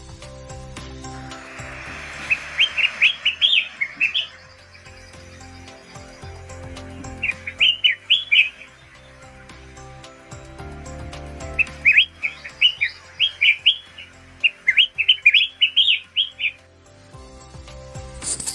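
Collared finchbill calls as the bird holds crabapples in its beak: clear, bright bursts of warbling chirps in several separate phrases, the later ones quicker and busier, over a low rumbling background with occasional soft knocks.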